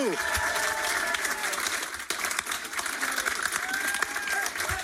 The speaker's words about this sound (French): Veuillez accueillir, applaudir, faire un maximum de bruit